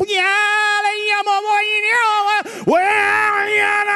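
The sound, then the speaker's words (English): A voice imitates a town-wide loudspeaker blaring propaganda in the Hmong language that sounds like an air raid siren, holding a loud, sustained tone with rich harmonics that wavers slightly, then dips sharply and rises again into a second howl. “It's like an, uh, like an air raid siren. It just kind of whoa, whoa.”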